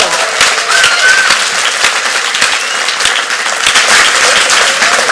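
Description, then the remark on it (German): Steady, loud applause from a crowd for a player's 300th game with SC Langenthal: dense rapid clapping sustained for the full five seconds with no pauses and no talking over it. “Und ich glaube, das ist ein Applaus wert.”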